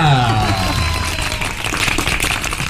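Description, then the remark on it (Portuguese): A steady, loud round of applause, a dense crackle of many hands clapping together for a few seconds, opening with a brief sweeping tone. “Eu queria uma salva de palmas para Adriana Batista.”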